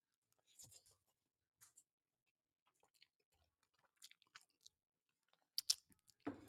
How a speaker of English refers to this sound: And yo, for the audience that loves to listen to the audio, I apologize. I'm eating some spaghetti right now.